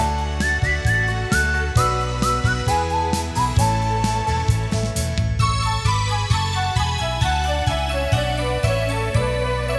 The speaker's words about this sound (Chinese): 不过这时候，安经理的脑海中闪过一个人的身影，想起明天，他不自觉地吹起口哨，哼着歌了。